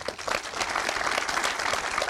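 An audience in a hall applauds a guest, a dense, steady wash of many hands clapping at once, sustained and fairly loud throughout with no voices standing out.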